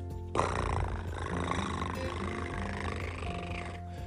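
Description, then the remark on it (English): A little cat purrs after being picked up, a steady, continuous low rumble, fairly loud, lasting a few seconds with a busy tonal background underneath and no talking. “picked up this little kitty and she purred.”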